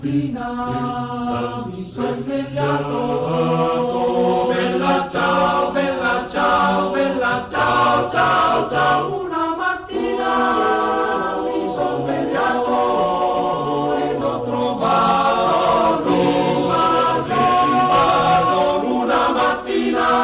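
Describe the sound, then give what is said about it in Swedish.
An old Italian partisan folk song of the anti-fascist resistance, sung in Italian, performed loudly and steadily, with a voice and accompanying instruments carrying a rhythmic melody throughout, full-bodied. “världens mest kända vill jag påstå partisansång som faktiskt är en gammal italiensk folksång”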